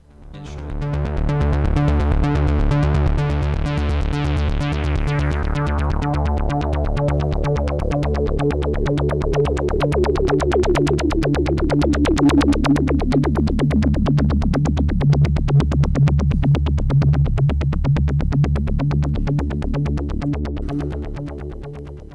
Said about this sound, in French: sur cet album, il n'y a que ce synthé, une pédale d'écho un séquenceur et quelques, quelques petites choses sur le mais euh, que j'utilise en fait que pour enregistrer